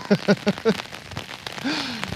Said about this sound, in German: Freuen wir uns doch über den Regen. Ja, eigentlich ja schon. Wird das jetzt doller?